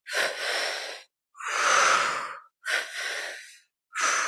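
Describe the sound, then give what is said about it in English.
Deep, audible breaths through the mouth, alone: a long airy inhale drawn into the belly and up into the chest, followed by a fuller, rushing exhale out through the mouth, then another inhale and the start of a second exhale, in a steady paced rhythm. “So we're going to bring the energy, the air into the belly first through the mouth, up into the chest, and then out through the mouth.”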